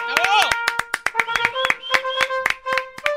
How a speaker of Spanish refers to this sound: Es un aplauso muy sumiso, maestro.